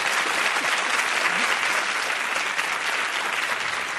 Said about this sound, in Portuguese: Olha, aplaudir.